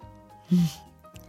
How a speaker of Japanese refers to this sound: はいじゃあいただきますまずスープをいただく